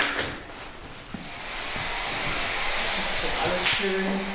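A steady, breathy hiss of liquid being sprayed onto shower room walls, running almost without pause and fairly loud, with a few faint knocks and shuffles underneath.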